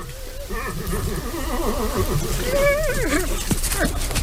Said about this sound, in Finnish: Mutta tiedätkö mikä se oli? Se oli tämä ääni. Hirvi siis kuulostaa tältä. Hirviä oli tosi paljon liikkeellä. Me nähtiin siis viikonlopun aikana mitä varmaan kolme vai neljä hirveä. Ja tuolta siis kuulostaa hirvi.